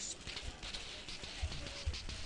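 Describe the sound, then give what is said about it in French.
A bag of ice holding a sealed smaller bag of ice cream mix is shaken in quick bursts to make ice cream, the cubes rattling and crunching against each other with a dull thump at each swing, fairly loud, no voices. “Non, ça, c'était le son du sac.”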